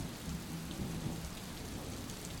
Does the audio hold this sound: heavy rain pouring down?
yes